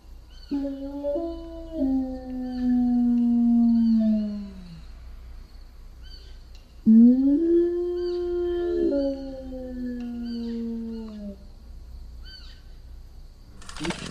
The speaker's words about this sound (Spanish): Pero esos aullidos, te digo, parecen mugidos de vaca.